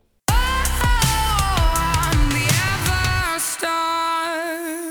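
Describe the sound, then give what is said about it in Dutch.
A short, bright sung theme jingle for the Talpa TV show Everstars, singing the programme's name: a vocal melody over punchy backing music with bass, ending on a held, sustained note. Loud, with no talking. “Ja, wat je, wat je hier hoort is, het is niet alleen een deuntje, maar echt de naam van het programma wordt gezongen.”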